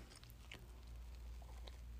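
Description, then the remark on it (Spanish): A quiet sip of coffee: a few soft lip and mouth clicks with a faint slurp and swallow over a low background hum, no talking. “bueno, es más, otro sorbito de café.”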